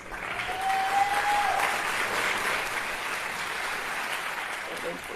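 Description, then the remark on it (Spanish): Steady applause from a crowd, inserted as a sound effect, fills the whole stretch, a dense wash of clapping at even loudness, with a brief whistle-like tone near the start. “Aplausos, voy a insertar aquí aplausos.”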